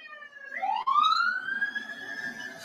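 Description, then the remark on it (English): A passing fire truck's siren wails, sweeping sharply upward in pitch and then holding a loud, steady high tone with a bright, layered ring. Faint background noise sits underneath, and no one speaks. “The fire truck about to go by.”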